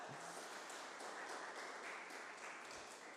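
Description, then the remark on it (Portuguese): An audience applauds Jesus together, a dense and steady wash of many hands clapping that carries on evenly for a few seconds with no voices above it. “Vamos aplaudir Jesus, ele é bom demais, né?”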